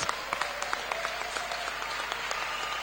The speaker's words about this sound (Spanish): Gracias y un gran aplauso a todos los, a todos los cortadores.